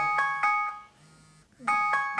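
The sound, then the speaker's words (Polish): A smartphone alarm ringing: a bright, high-pitched electronic tone repeating in quick rhythmic bursts, pausing briefly, then starting again, loud and alone with no talking. “Alarm wyłączony.”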